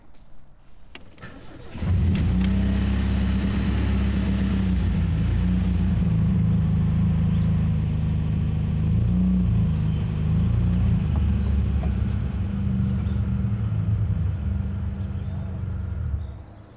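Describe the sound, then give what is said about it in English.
A truck engine turns over about two seconds in, being started to move the truck to a parking lot, then settles into a loud, steady low rumble that keeps running without fading until the end. No one speaks. “I'll just move the truck to Scudder's lot.”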